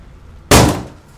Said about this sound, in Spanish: La puerta a nuestras espaldas se cerró de golpe y todo fue un caos.